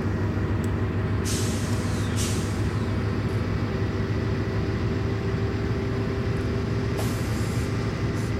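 A heavy vehicle idles with a steady low rumble while its air brake releases a couple of sharp, loud hisses, one lasting about a second early on and another brief burst near the end.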